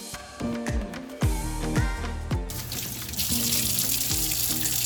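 Dishes being washed under a running tap, with steady water flow, clinking of plates and utensils in several sharp knocks early on, then a louder rush of water filling the sink.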